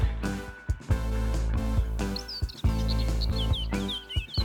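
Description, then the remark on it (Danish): A Eurasian blackcap, a small songbird, sings a bright, warbling song that enters partway through, quick fluttering phrases rising over a steady, loud backdrop of low sustained music. “Munk er en lille sangfugl, du også kan møde i Lille Vilmose, sammen med rigtig mange andre fuglearter.”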